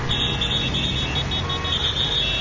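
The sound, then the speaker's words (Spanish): Dense, steady traffic noise with a low engine rumble and car horns blaring continuously on top, a loud, crowded street sound with no pauses and no voices. “Así suena un atasco.”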